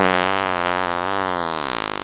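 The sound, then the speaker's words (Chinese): A huge, loud fart from a hippo, drawn out for about two seconds, a buzzy, wavering low tone that breaks into a rapid sputtering flutter as it ends, with no talking. “下一秒，河马放了一个超级无敌大的屁，然后就抓着狮子镇长一起冲出地洞，飞上天空。”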